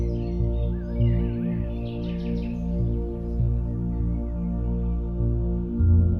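A flock of birds chirp and twitter together in quick, high-pitched bursts, strongest early on, partly buried beneath a steady, sustained musical drone that carries on throughout.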